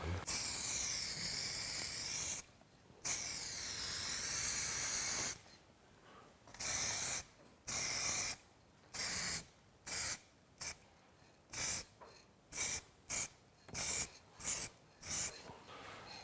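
Aerosol spray paint hissing from a can in bursts while spraying graffiti: a couple of long sprays, then a rapid run of short, sharp puffs with brief pauses between, fairly loud, no talking.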